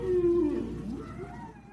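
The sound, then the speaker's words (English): A long, low moaning call from air whales holds a steady tone, then bends downward and wavers before fading, with a faint rumbling bed beneath it. “Then we shall continue our migration, but we shall change our course to intersect with that of the airways. Do you hear them?”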